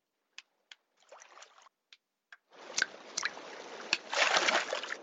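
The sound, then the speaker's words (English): A few sharp knocks and a short rustle as moonshiners push their moonshine stills down a hill, then heavy, loud splashing and sloshing as the stills land in a river, with a couple of bright impacts and a bigger surge near the end. “To ditch their stills, the moonshiners pushed them down a hill. The moonshine landed in a river”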